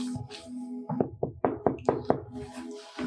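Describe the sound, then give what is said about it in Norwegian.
A series of about six firm knocks on a door, evenly paced, with a steady low hum or drone running underneath before and after. “Um, ja, du banker på.”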